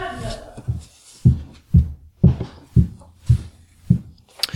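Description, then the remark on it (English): A woman's high heels climbing the staircase of a home: a steady series of about seven firm, thudding steps at an even, unhurried pace, each with a brief sharp edge, following a short stretch of muffled sound at the start. “That's my wife's um, high heels going up our um, staircase.”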